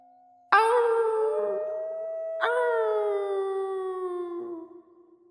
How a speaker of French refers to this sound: Mon Dieu Des loups s'exclame sa mère toute pâle. Seul Petit Jean n'a pas peur, car il a reconnu le hurlement de la louve.